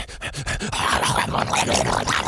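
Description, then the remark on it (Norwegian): A radio producer imitates a Staffordshire bull terrier, producing a run of rough, breathy panting and growly vocal bursts, fairly loud and continuous for a couple of seconds. “Vi har en produsent som er veldig god på å etterligne uh, eh, hund. En, uh, en Staffordshire bullterrier.”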